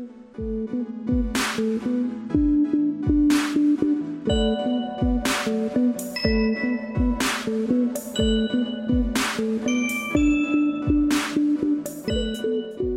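The jingle of the radio show Sans Dentelle on choc.ca, from the 1 November 2018 broadcast, plays on its own with a steady beat of sharp drum hits over sustained melodic tones. It is loud, with no voices.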